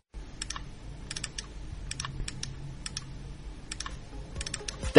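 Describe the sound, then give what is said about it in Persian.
Computer mouse clicks on internet pages, crisp, arriving in quick clusters of two or three with short pauses between, over a faint low hum; no voices. “صدایی که شنیدید صدای کلیک هایی که هر کدام از ما روزانه بر صفحات اینترنت انجام می دهیم”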